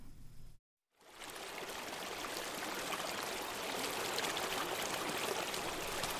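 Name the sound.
babbling stream water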